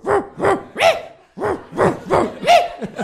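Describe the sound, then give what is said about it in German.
A dog barks repeatedly in a steady rhythm, about seven loud barks with a brief pause partway through, and no voices around it; a single sound-effect sample reused for about 30 years across 80 episodes of an audio drama series. “Die haben nur dieses eine Hundebell-Sample.”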